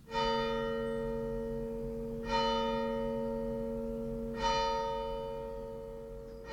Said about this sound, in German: Die Glocke der Wallfahrtskirche.